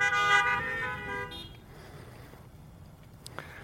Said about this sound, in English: Was anyone here last week? Honk your horn if you were here last week.